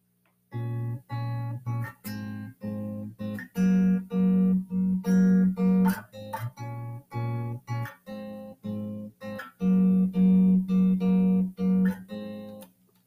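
A guitar plays a pop song intro: rhythmic strummed chords in short, evenly spaced bursts, repeating a steady pattern of chord changes, moderately loud, with no voices.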